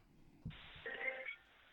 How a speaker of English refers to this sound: Oh, we're oh. getting a phone call. Oh, all right.